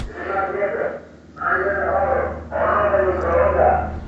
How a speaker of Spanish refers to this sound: Por ahí disculpen que va pasando el del fierro viejo. Escuchemos.